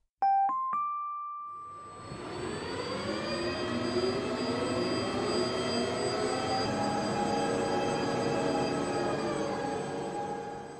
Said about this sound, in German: Angesichts seiner Größe bewegt sich das Teleskop erstaunlich schnell. Über 13 Meter misst die Parabolantenne, die innerhalb weniger Sekunden auf eine neue Position am Himmel ausgerichtet werden kann.